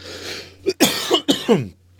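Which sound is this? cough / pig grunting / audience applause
cough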